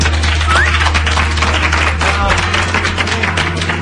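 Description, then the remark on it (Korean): A lecture audience applauds steadily, many hands clapping in a dense, continuous patter that stays loud and even for several seconds, with a low steady hum beneath it. “박수 한번.”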